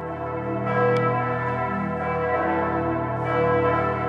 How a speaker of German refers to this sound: Sieben Glocken hat es im Berner Münster. Die hängen im Turm hoch über der Stadt, hier, wo man über die Dächer sieht.